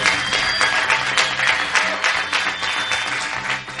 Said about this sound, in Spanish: Yo creo que un aplausito para que haya un poquito de calor. Y Venga, vamos, un aplauso, por favor.